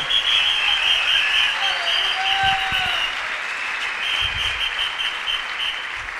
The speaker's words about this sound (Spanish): Dele fuerte ese aplauso al Señor.